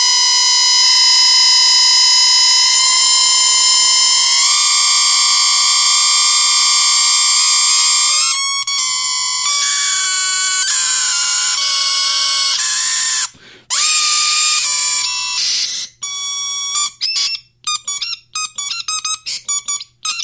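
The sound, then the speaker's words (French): Electronic white noise mixed with steady, piercing sine tones that shift and glide, growing choppier with abrupt bursts and dropouts toward the end. Loud, with no voices. “À la fin, on aurait vraiment dit euh, comme un ordinateur qui faisait du bruit blanc avec des, des, des sinus qui partaient partout.”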